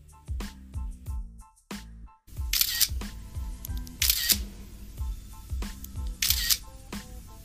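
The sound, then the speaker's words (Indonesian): Rapid camera shutter clicks fire over and over in quick, uneven bursts as several journalists photograph speakers posing at a press event, with camera flashes and occasional brighter mechanical whirs between the clicks. “Suara dari kamera berkali-kali terdengar, diikuti oleh kilatan sinar.”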